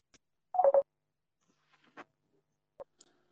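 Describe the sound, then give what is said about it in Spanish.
A short burst of electronic phone tones, like an incoming call alert, followed by a few faint, scattered blips. Quiet, with no one speaking. “Me está dando una llamada.”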